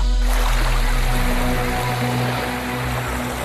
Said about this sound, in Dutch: Ja, we zijn even verplaatst naar het water, want in Nederland kan je daar niet omheen.